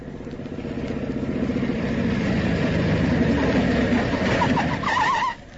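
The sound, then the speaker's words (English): A police officer's motorcycle engine roars steadily along a road, building in loudness as it draws near, then cuts off sharply at the end. A few faint chirps sound in the background. “I was just turning to search his pockets when I heard a motorcycle roaring along the road.”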